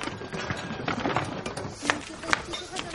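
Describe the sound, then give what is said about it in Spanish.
Donkey hooves clop unevenly on hard ground as a man leads the donkey away by pulling it, a handful of sharp knocks standing out from a steady murmur of background noise and faint voices. “Él la mira muy serio, agacha la cabeza y se marcha tirando del burro.”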